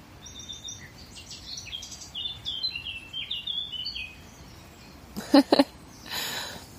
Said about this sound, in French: T'entends l'oiseau, c'est incroyable.